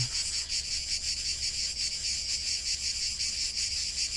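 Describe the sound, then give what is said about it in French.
Cicadas sing in a dense, continuous high-pitched drone with a faint pulsing shimmer, steady, filling the whole stretch with no voices and only a low hum beneath. “puis imprégnez-vous du chant des cigales.”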